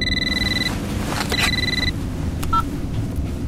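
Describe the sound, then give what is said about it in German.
A mobile phone rings in two short electronic bursts over the steady low rumble of a Bentley car being driven toward Soho, followed by a couple of brief beeps. “Als ich die Hälfte der Strecke mit meinem Bentley hinter mir hatte, meldete sich plötzlich mein Handy.”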